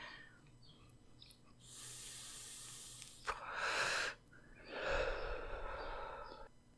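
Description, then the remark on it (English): Someone draws in smoke from a blunt with a long, airy inhale, then two more breathy pulls and exhales follow, hissing, with no talking. “I've got a blunt to smoke.”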